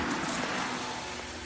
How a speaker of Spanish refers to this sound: el coche de Steven avanza por una carretera cubierta de árboles